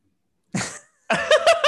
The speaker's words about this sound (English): okay, we're sorry, guys. I had to cough. Sorry about it's, that, guys.